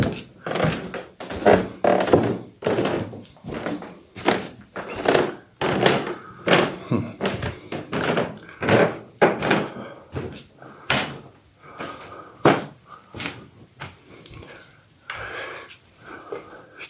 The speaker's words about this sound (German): Kennt, kennt ihr das? Das sind alte Drehlichtschalter. Da haben wir noch zwei hier im Haus. Wunderschön, ich mag dieses Geräusch.